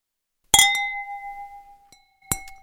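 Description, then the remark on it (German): Glasses clink together in a toast: one bright strike rings out and slowly fades, followed by two more quick clinks near the end, clear with no voices. “Prost. Prost. Stößchen.”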